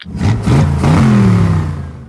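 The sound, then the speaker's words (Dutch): A car engine revs up loudly, its pitch rising and wavering over about two seconds before easing off slightly, with no voices present. “Of ik op een horloge klik en dat er dan een auto verschijnt.”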